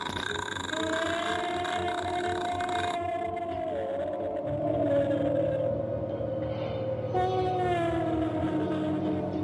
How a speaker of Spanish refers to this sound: Sin embargo, la tranquilidad no duró mucho, ya que se escuchó otro grito en la distancia